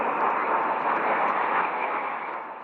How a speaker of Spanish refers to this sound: Hablamos de los pilotos de la patrulla de Francia. Sus aviones vuelan a 600 kilómetros por hora y a 3 metros los unos de los otros.